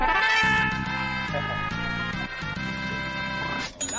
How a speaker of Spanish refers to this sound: para comprobar que vas en tu auto, puedes tocar el claxon tres veces.